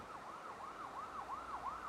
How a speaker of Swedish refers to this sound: Plötsligt störs morgonens harmoni av sirener som närmar sig. En polisbil bromsar in på din uppfart och två poliser kliver ut.